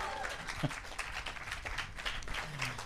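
Steady applause from an audience in Leipzig, a dense wash of many hands clapping at once, with a few faint voices murmuring beneath it throughout.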